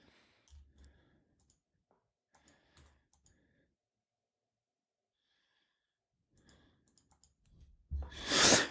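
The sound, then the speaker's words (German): Quiet computer mouse clicks come in small irregular bursts with pauses between them, and a sudden loud breathy rush of noise at the very end. No one speaks. “Und warum klickst du denn die ganze Zeit auf deiner Taub äh, Maus rum?”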